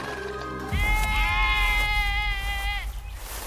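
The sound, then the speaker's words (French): A single long, wavering sheep bleat from sheep grazing on Mount Ida rings out loud for about two seconds over a low outdoor rumble, then fades back into the background. “ses moutons lui manquent. Alors de temps en temps, il retourne les faire paître sur le mont Ida.”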